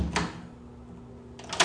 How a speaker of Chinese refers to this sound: 哦，而且它这门真的很旧，你听这声音，这是木门，然后是喇叭锁，不过它的喇叭锁是做成也是木纹造造木纹的样子。